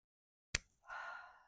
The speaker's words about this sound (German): ja, ich muss atmen